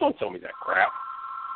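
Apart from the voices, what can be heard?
telephone ringing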